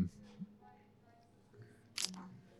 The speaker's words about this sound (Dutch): Ondertussen heb ik hier een beetje een kraakstoel.